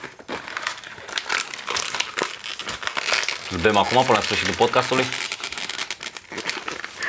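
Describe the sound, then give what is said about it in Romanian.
Wrapping paper being torn off a gift package: loud, continuous crinkling and ripping rustle that fills the whole stretch, with a person briefly speaking over it in the middle. “O să rup acest ambalaj.”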